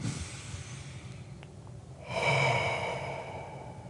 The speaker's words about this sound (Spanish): Y eso es inhalación por un cuento de cuatro, ah, aguanta el aire por un... por cuatro. Por cuatro, exhala por cuatro completamente y espera por cuatro. Y luego toma una respiración.